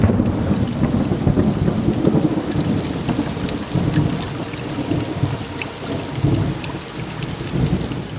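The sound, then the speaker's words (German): A steady summer downpour hisses across the whole stretch, with deep rolling thunder rumbling low and continuous beneath it; no voices, just the enveloping storm. “Entspanne dich, genieße das Sommergewitter und die Musik.”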